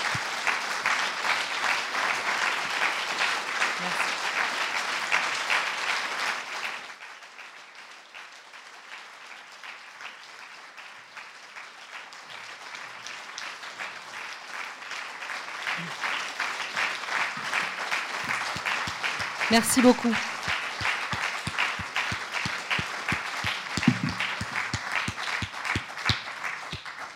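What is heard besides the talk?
audience applause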